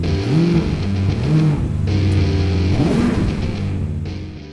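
A car engine rumbles loudly up close, its pitch rising and falling in several quick revs over a steady low drone, with no voices.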